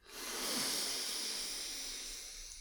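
A long, deep inhale through the nose during a guided breathing exercise, a steady airy hiss that swells quickly and holds for a couple of seconds, fairly loud, with no talking.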